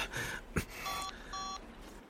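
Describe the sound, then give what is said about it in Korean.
Two short, steady electronic phone beeps sound in quick succession, clear, after a brief breathy rustle, with faint background hiss throughout; a phone call being redialed that only gets a service-unavailable-area notice. “다시 전화를 걸어보았으나 계속 서비스 불가능 지역이라는 알림만 떴다.”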